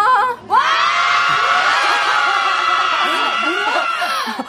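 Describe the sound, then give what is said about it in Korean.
A radio show's open-studio audience of fans erupts in loud, sustained cheering and high-pitched screaming, many voices overlapping in a continuous roar that begins after a brief pause and holds for several seconds. “진짜 많이 와주셨어요 오늘 그 스튜디오에 한번 소리 한번 들어볼까요?”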